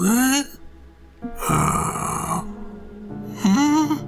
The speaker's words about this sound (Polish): a deski podłogi skrzypiały, kiedy bieguny się majtały. I słyszysz teraz to.